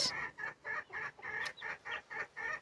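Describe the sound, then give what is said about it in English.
Chickens clucking in a steady run of short, repeated calls, about eight in quick succession, clear with no voices. “got new chicks.”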